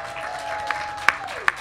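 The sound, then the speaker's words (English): A crowd at a Feast Portland event applauding and cheering, a steady wash of clapping with a few sharper, louder claps and a sustained whistle that holds its pitch and then slides downward. “All right, and thank you for the cheering.”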